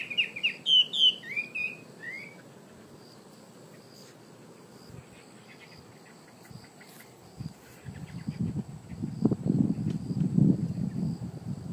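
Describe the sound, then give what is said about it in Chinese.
Quick, high, dense bird chirps and trills crowd the first few seconds over a steady, thin insect drone, which lingers on while low gusty wind rumbles in toward the end. Recorded on a phone on a path through thick woods on both sides. No one speaks. “走到里面的时候，我的听觉就意识到不同了，就是因为是鸟叫，但是没想到鸟叫那么的密，那么的立体声，你知道吗？”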